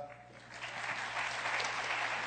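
A church group breaks into sustained applause to encourage the children, many hands clapping in a dense, steady crackle that swells slightly after the first half-second and holds at a fairly loud level.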